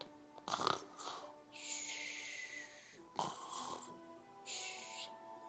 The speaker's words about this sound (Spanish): Pero el señor Inflón seguía roncando.